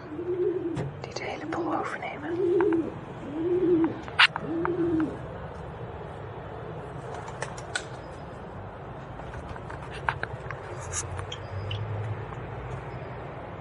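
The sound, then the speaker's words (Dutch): Pigeons on a balcony coo in a low, rolling rhythm, about five throaty phrases in quick succession, fairly loud, then fall quiet under faint outdoor background noise while a person speaks briefly. “Dit zijn dus de duiven op het balkon”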